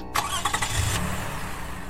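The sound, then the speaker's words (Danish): A car engine is started in a parking lot, cranking with a short burst of starter whine, then catching and settling into a steady low rumble, with no voices. “Han lagde en pose ind på det andet forsæde, tændte for motoren”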